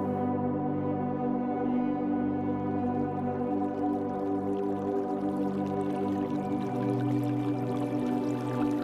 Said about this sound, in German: Der Bach plätschert sanft vor sich hin